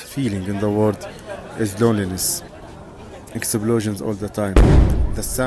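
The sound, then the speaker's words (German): A single deep, booming detonation in Gaza bursts out near the end, louder than the voice that talks steadily throughout; muffled low rumble trails briefly after the blast. “Detonationen die ganze Zeit. Vielleicht könnt ihr sie hören, während ich das hier aufnehme.”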